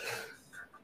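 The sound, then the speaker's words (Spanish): A single sneeze bursts out sharply, then trails off into a couple of brief breathy, nasal sounds as it fades. “Perdón. salud.”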